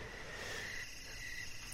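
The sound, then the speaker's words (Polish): Crickets chirp steadily, a faint, continuous high-pitched trill over a soft ambient hiss, with no one talking. “ze świerszczami w tle znikam z tej hiperprzestrzeni.”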